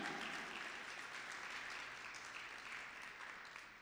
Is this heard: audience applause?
yes